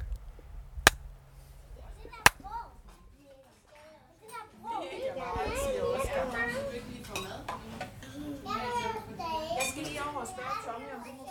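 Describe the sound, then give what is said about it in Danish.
Two sharp, loud hand claps about a second and a half apart, made as a clap test of room acoustics and echo, ring out over a busy background, followed by overlapping voices of children chattering and faint clatter of dishes. “Men jeg kan lige prøve at lave klaptesten, og så se, om det giver noget. Jeg klapper to gange.”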